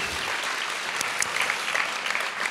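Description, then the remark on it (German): An audience at a sermon applauds to welcome a young man to the front, a dense, steady wash of many hands clapping with scattered sharper claps standing out, sustained at an even level for the whole stretch with no voices. “Und den begrüßen wir mit einem Applaus hier vorne, weil der erzählt uns gleich was zu seinem Leben.”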